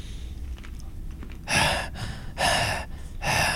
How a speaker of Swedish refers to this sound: Du känner liksom... Det är tungt. Mm, du hör din egna andning så här. Och har börjat bildas lite så kondens också kanske mm. på ditt visir.